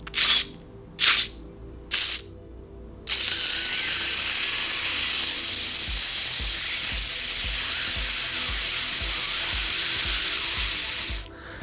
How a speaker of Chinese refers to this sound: 好，我们再试一次，鼻子吸一大口气，没有保留的吸到最大一口气，然后肚子撑大，绷住，憋住气，然后用力的挤压肚子，接着发出“呲”的声音。